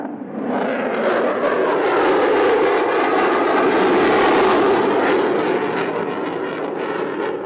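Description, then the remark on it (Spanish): An airplane flying overhead at an air show: a loud, steady engine roar that rises quickly, swells slightly toward the middle and holds without fading. No one speaks. “Otra vez, siento que como ya lo dije mucho, pero no me gustan las guerras, pero imagínate en una guerra que escuchas ese sonido.”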